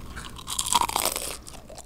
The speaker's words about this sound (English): That was a good crispy french fry. Listen to that crunch.